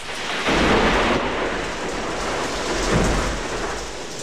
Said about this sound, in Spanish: Aún no se reponen los marinos de tan insólita experiencia cuando la brisa helada que ha estado soplando se transforma en tormenta.